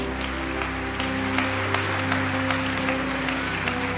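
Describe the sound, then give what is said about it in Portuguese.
Sustained, dense applause from an audience applauding the Lord at a worship service, a steady wash of clapping lasting several seconds over a low, constant hum, with no voices rising above it. “Você pode aplaudir ao Senhor bem forte?”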